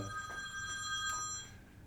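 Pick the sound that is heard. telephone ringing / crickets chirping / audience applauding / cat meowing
telephone ringing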